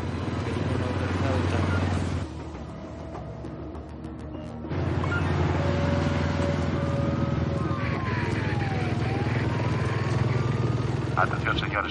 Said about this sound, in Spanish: Tokio se baja la visera del casco y arranca la moto.